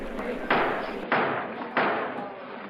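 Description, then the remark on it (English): Commissioner Maher pounds a gavel three times in the circuit courtroom of the United States Custom House at a 1907 trial, in an even rhythm, each loud wooden knock ringing out and fading briefly before the next, over a low background hum. “Commissioner Maher pounded his gavel.”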